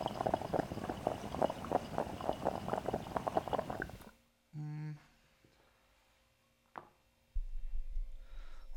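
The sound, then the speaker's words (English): Rapid, rhythmic water bubbling in a dab rig as someone pulls on it to check the water level, a steady gurgling burble for about four seconds, followed by quiet with a couple of brief knocks and a low rumble. “Let me just pull on it and just see how the water levels are looking here because I just looked at that.”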